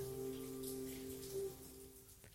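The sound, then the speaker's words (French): Steady autumn rain falls in a soft, continuous patter, fairly quiet, with a low constant hum running underneath and no voices. “C'est l'automne, il pleut.”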